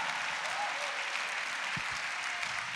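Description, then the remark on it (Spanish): Steady, dense applause from a crowd giving a round of applause to Jesus Christ, a continuous wash of many hands clapping at even loudness throughout, with no distinct individual claps standing out. “Y si tú lo crees, dale un aplauso a Jesucristo.”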